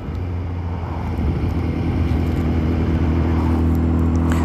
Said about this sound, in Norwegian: Ja, nå kan jeg ikke akkurat telle heller, for jeg kjører motorsykkel